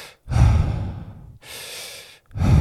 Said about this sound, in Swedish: Är det det tempot du ska ha? Uh, lite lång, långsammare. Nej, inte, du ska inte pressa ut, du ska bara andas ut.